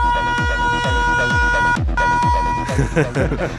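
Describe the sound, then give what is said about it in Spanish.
A loud, steady siren blast sounds over a pounding electronic beat, breaks off briefly, then returns for a shorter burst before the music turns busier and noisier. “Oye, ¿qué tenía la sirena?”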